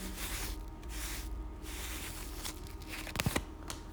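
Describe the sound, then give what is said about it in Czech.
Tarot cards being shuffled with a steady papery riffling and rubbing, followed by a couple of sharper snaps and flicks as cards are drawn and laid down. No voices. “Karta mák. Jakoby ten tarot vám teďka řekl, kouzlo se stane.”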